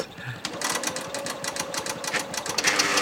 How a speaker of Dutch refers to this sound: Er komt een papiertje uit de machine rollen.